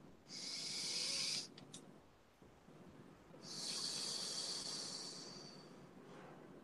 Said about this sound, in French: Une respiration.